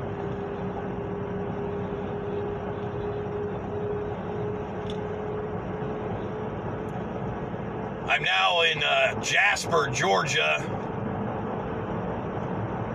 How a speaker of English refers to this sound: following a 14 ton drill rig down the road my three quarter ton work truck with a trailer full of shit. Heading to a job site we hope we can get to and get done.